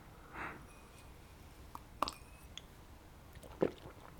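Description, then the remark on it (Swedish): Someone takes a sip of water: soft wet mouth sounds, a couple of small slurps and a swallow, quiet and sparse with no talking. “Nu tar jag en klunk vatten här.”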